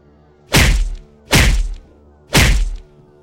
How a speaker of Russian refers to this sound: Он ударил несколько раз ногой в дверь лифта, и злобно нажал на кнопку вызова диспетчера.